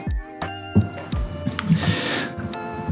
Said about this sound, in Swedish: ligger katten och snarkar bakom mig. Jag hörde så här, någonting så här. Men ju, han ligger och snarkar.